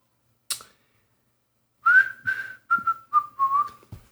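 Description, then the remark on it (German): A short airy puff, then a wobbly, breathy attempt at whistling by a 41-year-old man who still cannot whistle: several weak, wavering notes that slide gradually lower, with lots of rushing air and no steady tune. No talking. “bin 41 Jahre alt und ich kann immer noch nicht pfeifen.”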